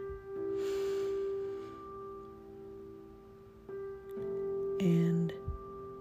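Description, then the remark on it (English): A slow, airy deep breath drawn in through the nose during a guided relaxation exercise, soft, over a steady humming musical drone, with a second brief breath sound near the end. “Now close your eyes and take a deep breath in. Now breathe out. breathe in.”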